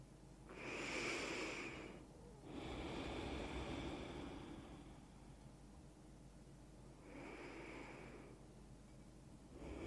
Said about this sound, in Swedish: mjuk incheckning för att landa. Tre andetag.